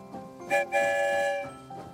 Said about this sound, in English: There goes the sound of two whistles.